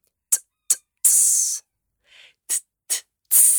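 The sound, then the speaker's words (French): A voice beatboxes a pattern of short, crisp clicks and hi-hat ticks broken up by sustained, loud hissing S sounds imitating an open hi-hat. It repeats twice, with no speech. “et eh bah, ben, tu refais la même chose maintenant quand il est ouvert en prolongeant ton S.”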